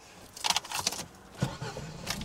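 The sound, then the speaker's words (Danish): Car keys jingle briefly as the driver, seated inside the car, starts it; a low rumble follows as the engine turns over and starts, settling into a steady idle by the end. “Det, der altid er vigtigt, det er lige at få startet den op med det samme.”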